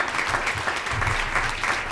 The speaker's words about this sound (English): So let's give these two gentlemen a round of applause. They truly are Eagles.